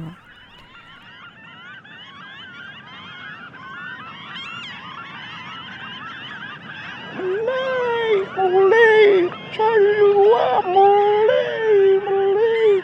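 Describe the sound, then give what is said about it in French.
Seagulls call loudly by the Pacific Ocean, a series of wavering, repeated cries in the second half, over a steady rushing of very strong, powerful waves that starts out quieter before the birds join in. “Et donc euh, on, a, on, a été, on a été euh, observer euh, les, mouettes, les vagues du Pacifique, du Pacifique qui, se, qui, sont, qui sont très, très fortes, très puissantes.”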